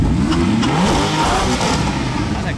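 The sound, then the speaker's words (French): A Porsche 991 GTS sports car engine revs loudly, its deep throaty growl rising and falling in pitch for a couple of seconds with no talking. “C'est une 991 GTS.”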